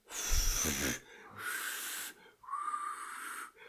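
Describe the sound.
Three breathy puffs of air blown through pursed lips, each about a second long, a failed attempt at whistling with only a faint hint of a tone in the last one. Fairly loud, no talking.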